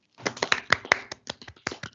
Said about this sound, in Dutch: Wow. Even applausje hoor.